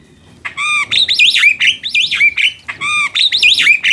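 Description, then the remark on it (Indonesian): A black starling calls loudly, giving two bursts of rapid, squawky whistled notes that rise and fall, with a short pause between them. No one speaks. “ya aku mendengar suaramu. Kau di mana?”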